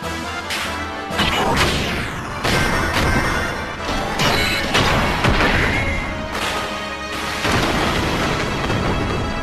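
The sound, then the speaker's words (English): In a video game, heavy metallic punches from one giant robot hitting another slam repeatedly, each a loud booming crash, building into rumbling explosions as the struck robot falls on its knees and explodes; dense and continuous with no talking. “That is the sound of a giant robot punching another giant robot that hmm.”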